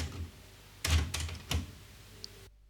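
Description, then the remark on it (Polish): Faint, steady cassette tape hiss, with noise reduction switched off and the cassette recorded without Dolby, runs under a few sharp mechanical clacks, like a tape deck's buttons or mechanism, then cuts abruptly to silence near the end. “wstyd, że ponieważ nie są włączone systemy redukcji szumów.”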